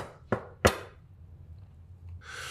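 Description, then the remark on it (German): Two sharp knocks land in quick succession on a door or wall outside a house in a mountain village in the evening, followed by a quiet pause and then a soft, breathy rustling at the end. “Auf einmal hört sie draußen ein Klopfen.”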